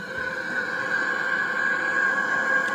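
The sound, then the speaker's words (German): A NASA space sonification of the planet Saturn: a steady, eerie droning hum with layered whining tones, holding a constant loudness throughout, with no voices. “Das ist der Saturn.”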